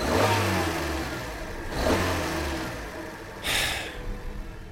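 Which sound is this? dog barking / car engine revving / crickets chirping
car engine revving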